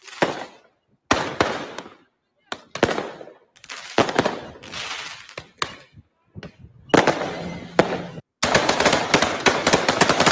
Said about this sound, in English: there's one video on here that I was just like just amazed by this one right here. You see gunshots and fireworks.